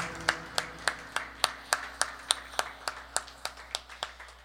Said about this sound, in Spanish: Si tú quieres tomar tu cruz, dale un aplauso bien fuerte al Señor. Gracias, Señor.